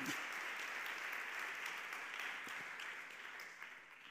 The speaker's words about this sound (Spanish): ¿Cuántos dicen amén a eso? Se va a aplaudir al Señor, apláudelo.